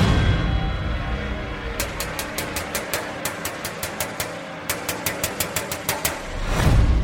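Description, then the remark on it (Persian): Rapid metallic banging on a warehouse door, someone striking it very hard with a metal object, in three quick bursts of hard, sharp knocks, loud, with a low droning rumble underneath and no voices. “یهو صدای در زدن اومد یکی خیلی محکم با یه چیز فلزی میکوبید رو در انبار”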